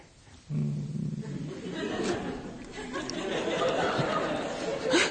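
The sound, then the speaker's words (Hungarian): A person on Mária Rádió imitates a dog's growl, starting with a low hum that turns into a rough, raspy snarl, held for several seconds and growing louder toward the end. “Kutyává alakultam, és pitisztem nektek.”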